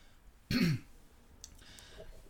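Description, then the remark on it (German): A single short, forceful throat clearing, a rough burst lasting a fraction of a second, followed by quiet background with faint shuffling. “Oh Gott, das habe ich einen Frosch am Hals hier.”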